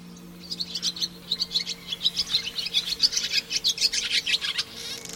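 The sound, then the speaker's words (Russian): A rapid, steady series of bright, chattering calls of the common house martin, a passerine swallow common in cities, moderately loud, continuing throughout with no voices present. “Ласточка в городах чаще всего встречается именно городская ласточка или воронок – относится к отъеду воробьиных.”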